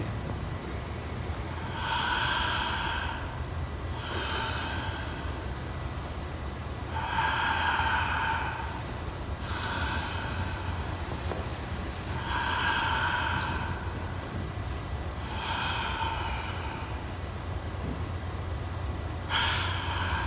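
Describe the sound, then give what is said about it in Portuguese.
Slow, steady breathing during a guided meditation, each breath a soft airy rush repeating every two to three seconds, heard alone over a low background hum with no talking. “Eu mantenho a minha respiração e do jeito que vem, é o jeito que vem.”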